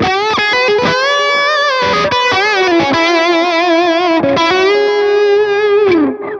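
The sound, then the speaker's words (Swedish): Electric guitar through delay and reverb, miked with a Shure microphone into a red Focusrite audio interface: loud, sustained, gritty notes with slides and bends, the repeats smearing together into a continuous wash before it cuts off and rings out at the end. “sen kommer vi tillbaka och det kommer ett delay och ett reverb”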